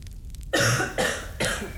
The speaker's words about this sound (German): Darf ich kurz husten?